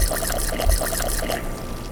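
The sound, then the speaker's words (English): A brew of hibiscus petals, lemon thyme, honey, water and yeast pours steadily from the tap of a large 500-gallon tank in a continuous gushing stream, fairly loud, with a faint low rumble underneath and no voices. “So you've just pulled some out of this great big 500 gallon tank.”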